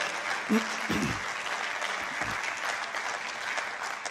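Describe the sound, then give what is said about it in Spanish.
A crowd claps steadily during a worship service, applause given to Jesus: a dense wash of clapping that stays fairly even throughout, with a few faint voices calling out beneath it. “Si usted lo cree, diga amén fuerte y den un aplauso a Jesús.”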